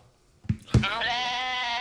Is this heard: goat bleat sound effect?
yes